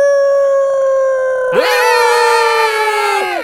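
The big bad wolf of a story howls, one long sustained wail that swoops up into a loud, rich, steady tone before sliding down and fading. A thinner steady tone leads in beforehand, with no talking.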